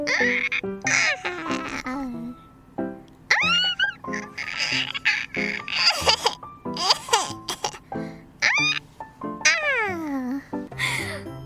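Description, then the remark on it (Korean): A voice imitates the Teletubbies baby giggling with rapid high-pitched squeals, coos and sliding chirps in quick bursts. Fairly loud, with no ordinary speech. “제가 텔레토비 애기 성대모사 해볼게요.”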